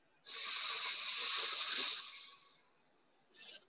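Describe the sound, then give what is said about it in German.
An airy nasal breath drawn in through the left nostril during an alternate-nostril breathing exercise, a steady rushing hiss for about two seconds that tapers off, followed by a brief second sniff. “Wir steigern jetzt verschließen rechts, halten ganz kurz den Atem an, öffnen links, atmen wieder aus, atmen links wieder ein,”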